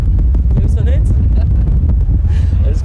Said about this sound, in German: ja, bei dem Wind.